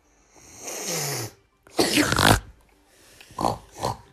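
A pig grunts and snorts: a drawn-out nasal grunt, then a loud, harsh snort, followed by two short, quicker grunts. No talking.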